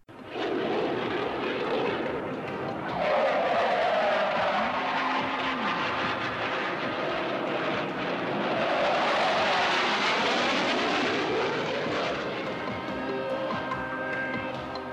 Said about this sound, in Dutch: Daarna eh, vlogen er starfighters uh, vlogen er overheen met vol nabranders. Dus dat was echt Harry.